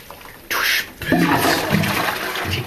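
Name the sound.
toilet flushing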